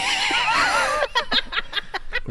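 A horse lets out a loud, wavering high whinny that breaks into a run of short, choppy pulses, like a fluttering nicker, all within a couple of seconds and close up.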